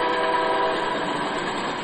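A loud, sustained train horn blares steadily for about two seconds over the rumble of rail cars as a train rides up the tracks behind a baseball stadium, with no voices present.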